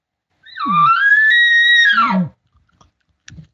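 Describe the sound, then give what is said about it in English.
One fairly soft imitated bull elk call, mimicking a bull keeping in contact with his cows as he moves them along: a steady, high whistling tone lasting about two seconds, framed by low grunts at its start and end, then near silence with a few faint clicks. “you'll hear a bull that's monitoring the cows or keeping in contact with them”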